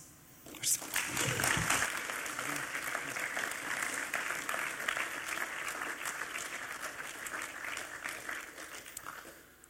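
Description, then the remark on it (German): An audience breaks into steady, dense applause for a speaker who has just told about their life. The applause starts abruptly and keeps going at an even, fairly loud level for several seconds, with a brief voice audible near the start. “Dir zum Schluss noch einen äh, Applaus gönnen.”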